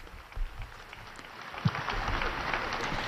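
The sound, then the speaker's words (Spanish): Crowd applause fills St. Peter's Square after a canonization proclamation, a dense crackle of many hands clapping that swells and holds steady through the second half, with no talking over it. “y escuchamos esos aplausos de esa plaza de San Pedro”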